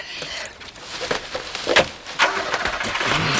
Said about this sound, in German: Da war jemand, aber er ist weggefahren. Er ist vor uns geflüchtet.